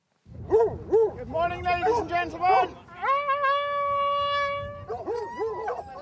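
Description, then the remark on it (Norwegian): A large pack of hounds on a fox hunt in the English countryside, following riders on horseback, bays in quick overlapping yelps, then one long steady howl rings out before more barking returns. Fairly loud, with no talking. “Fulgt av en enda større flokk blodtørstige hunder.”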